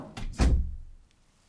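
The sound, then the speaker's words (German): A hotel room door is pulled quickly shut by people who have just entered: a short swish of movement, then one solid thud that fades. No voices. “Sie treten ein, ziehen rasch die Tür hinter sich zu.”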